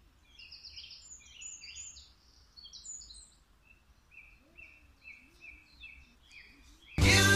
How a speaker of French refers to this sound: Voilà, je vous laisse avec les petits oiseaux une fois de plus.